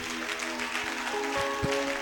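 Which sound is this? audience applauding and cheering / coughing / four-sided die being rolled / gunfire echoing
audience applauding and cheering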